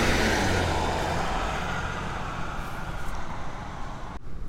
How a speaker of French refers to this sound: Et encore un gros pick-up. Un RAM pour ceux qui connaissent. Je sais pas ce qu'ils ont les Américains, ils ont peut-être un complexe avec les voitures. Ah, le bon son du gros V8.